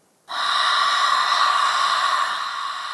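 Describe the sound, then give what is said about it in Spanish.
A voice imitates wind blowing: one long, steady breathy whoosh with a faint whistling tone that starts suddenly and holds for nearly three seconds, fairly loud, with no talking. “Imagínense, está en la punta de la montaña con sus ovejas y de repente empieza a escuchar un viento.”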